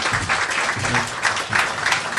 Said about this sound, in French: Ouais, une bonne main d'applaudissements, vous le connaissez bien.